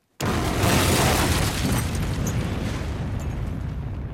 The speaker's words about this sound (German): Von Zeit zu Zeit hört man Explosionen, sieht die Lastwagen der Gebrüder Mella die riesige Gesteinsquader zur Verarbeitung zum Talausgang transportieren.